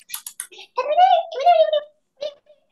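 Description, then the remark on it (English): A voice imitates the chatter of back-garden squirrels: three quick clicking sounds, then two drawn-out, squeaky rising chirps and one short final chirp, fairly loud. “I'm friends with all the squirrels in my back garden, and they all sound like this.”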